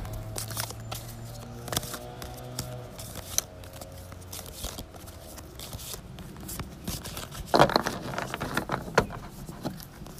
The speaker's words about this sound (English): All right, so I'm just gonna shuffle my cards.